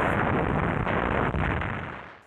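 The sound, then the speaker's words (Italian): Heavy bombing explosions from an American air raid destroying the Nazi palace of justice form a dense, continuous roar of deep rumbling blasts and crackling bursts, staying loud throughout before slowly fading at the end. “Proprio quel giorno un raid aereo americano distrugge il palazzo di giustizia nazista e Max è incredibilmente vivo e libero.”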